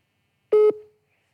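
A single short electronic telephone tone, a steady pitched beep lasting about a fifth of a second, loud and close, then fading quickly into silence.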